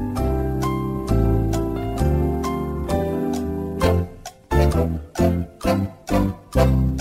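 A light instrumental thinking-music tune plays on its own, starting with sustained, ringing notes and then moving into a bouncy, evenly pulsing staccato pattern. No one speaks over it.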